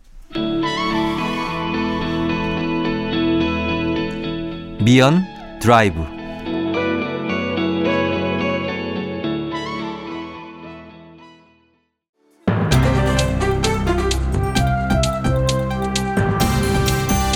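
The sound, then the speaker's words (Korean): A song plays loud on the radio, heavily processed, with a swooping effect partway through, a brief near-silent break, then a fuller, brighter section kicking in. A voice briefly speaks over it. “일단 우리 노래 듣고 올게요”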